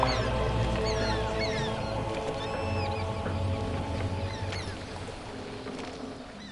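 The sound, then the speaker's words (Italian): Seagulls call and squawk repeatedly, overlapping one another, above a steady low rumble like a boat engine or lapping water, with no talking. “Quando iniziò a riprendersi, il verso dei gabbiani fu il primo suono che sentì.”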